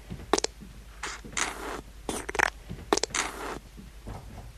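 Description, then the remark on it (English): Wet squelching of a dollop of hair gel worked between hands, a series of sticky, smacking bursts in an irregular rhythm, with short pauses between them and no voices. “Um, you just take out a nice good dollop of it and uh, put it in between your, your hands and sort of work it around and you can get varying different sounds.”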